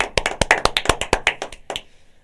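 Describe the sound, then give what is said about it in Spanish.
A quick run of about a dozen crisp hand claps in a brisk, fairly steady rhythm, loud and sharp, trailing off with a last clap and a short fade. No one speaks. “Esto se merece un aplauso porque yo de verdad te digo”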